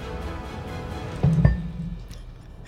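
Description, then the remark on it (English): A large d100 die, about half a pound, is rolled on a tabletop during a game, landing with a couple of dull, low thumps in quick succession partway through, then stops rolling amid quiet background noise. “I heard this thump on the table, but I didn't know where it was coming from.”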